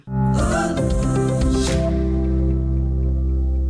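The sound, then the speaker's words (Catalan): A short sonic logo of the insurance brand Mafre: a bright musical flourish with a shimmering rush at the start, settling into a loud, sustained chord that rings out for a few seconds, with no voices. “Mafre. Mafre.”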